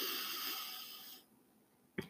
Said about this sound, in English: Let's breathe in together. Breathe in out. In, out. One more with me. Ready? Breathe in